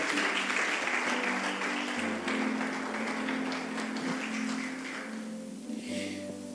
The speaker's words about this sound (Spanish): Amén. Dale un aplauso a la palabra del Señor.